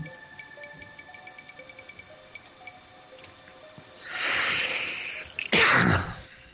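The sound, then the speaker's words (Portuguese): A single loud sneeze: a breathy rising inhale builds up, then a sharp explosive burst near the end, after several seconds of quiet background. “Saúde.”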